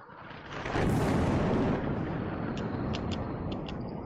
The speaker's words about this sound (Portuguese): Você chega lá e vocês ouvem um trovão, na real o céu está limpo, a, a, o, está amanhecendo, o céu está limpo, mas mesmo assim vocês ouvem o, os trovões.